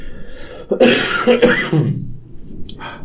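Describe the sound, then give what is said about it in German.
A loud cough or throat-clearing burst, a few harsh rasping pushes in quick succession, followed by quieter breathy noise and faint clicks as it settles. “Haben wir diese Spitzen, wenn die gehustet wird.”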